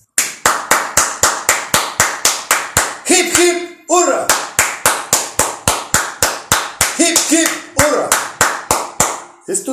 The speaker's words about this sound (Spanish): ¿Sabes? ¿Sabes? Quisiera darte un aplauso.